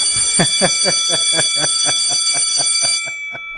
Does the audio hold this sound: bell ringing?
yes